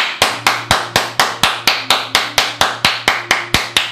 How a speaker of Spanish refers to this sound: este aplauso es para ti, porque una persona que reconoce que es pecadora, y que hace puras pendejadas, mis respetos.